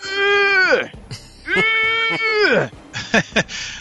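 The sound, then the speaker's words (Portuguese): A voice imitates the straining grunts of a man making an effort at the gym while weightlifting: two long, loud, tense groans that each slide downward in pitch at the end, followed by a couple of short, sharp exhaled bursts. “O cara que vai fazer o esforço na academia e fazer aquele...”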